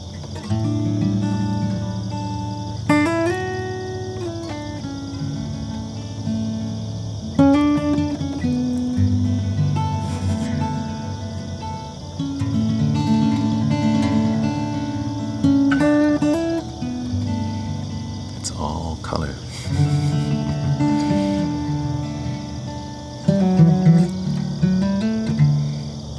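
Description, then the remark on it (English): A steady, high-pitched chorus of crickets chirps continuously throughout, blended with soft melodic plucked guitar tones playing in the foreground. “Like the guitar, the sound of my voice, or nature, the crickets.”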